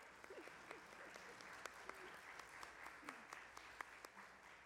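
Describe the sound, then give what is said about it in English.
A standing audience at a worship service applauds steadily, a dense patter of many hands clapping at once with a few sharper claps standing out, sustained at moderate volume throughout with faint voices murmuring underneath. “Please remain standing, and please feel free to applaud.”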